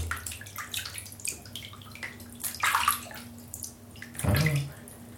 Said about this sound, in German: Wasser macht einfach tolle Geräusche